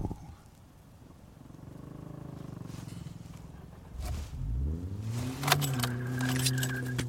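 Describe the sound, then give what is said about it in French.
Keys jingle, then a starter cranks and a car engine catches, its tone sweeping upward as it revs before settling into a steady, loud idle. No one speaks. “Putain, anti-démarche de merde. C'est reparti les amis.”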